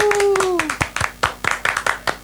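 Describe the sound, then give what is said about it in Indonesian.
A few people clap their hands for the Persistor model in a quick, steady burst of sharp claps lasting about two seconds, opening with a brief whoop that slides down in pitch. “Kita harus tepuk tangan ke modelnya Persistor deh.”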